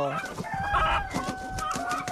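Two native chickens cluck and squawk in a busy, overlapping flurry as they flap about and run back and forth in a kitchen, with sharp high calls rising over a steady churn of clucking, fairly loud throughout.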